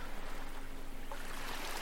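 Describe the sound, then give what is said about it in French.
A steady, full wash of sea waves coming in and pulling back over sand, holding an even loudness throughout with no voices present. “Les vagues qui viennent et repartent sur le sable.”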